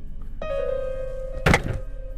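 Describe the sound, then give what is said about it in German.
One heavy, dull, slow knock lands on the door of a hut partway through, with a couple of quick softer echoes after it, over a steady humming drone and otherwise long silence. “Dieses Pochen ist langsam, sind die Abstände zwischen den Klopfgeräuschen sind zu lang, unangenehm lang.”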